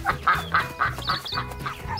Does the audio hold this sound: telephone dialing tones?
no